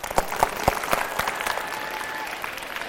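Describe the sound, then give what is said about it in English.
A crowd applauds for a few seconds, with several sharp, evenly spaced claps standing out at the start over a steady wash of clapping that thins slightly toward the end. “i don't know about you but if i walk in a room and somebody gives me an introduction i at least expect to get a couple claps can i get some claps”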